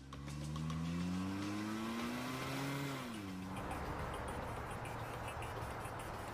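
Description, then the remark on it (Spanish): A getaway car's engine roars and climbs in pitch as it accelerates hard while robbers flee in it, then gives way to a rough rush of tire and road noise as the vehicle speeds off. “Escaparon en su auto.”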